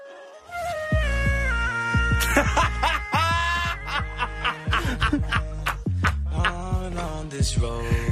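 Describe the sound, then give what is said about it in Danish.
A dog named Maggie, its barks and yips pitched into stepped, singing tones by autotune, repeating in quick bursts over a steady musical backing with a low bass pulse, loud throughout, with no talking. “Maggie synger bedre igennem Tænk, Tænker, man kan synge bedre igennem autotune.”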